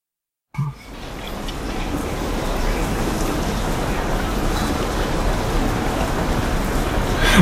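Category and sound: nature, rain falling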